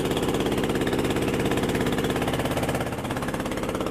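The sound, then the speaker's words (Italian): The engine of a 10-metre fishing boat carrying three local fishermen, moving slowly on the Meghna River in Bangladesh, chugs steadily: a loud rhythmic thudding drone with a heavy low throb that barely changes, dipping slightly near the end. No voices are heard. “la barca procede lentamente sul fiume Meghna, uno dei più importanti fiumi del Bangladesh.”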